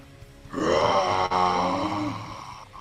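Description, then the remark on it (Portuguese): A person voices the monstrous scream of a large creature, one loud, strained, rasping roar held for about two seconds before it trails off, with no other talk. “Você escuta atrás de você um grande grito.”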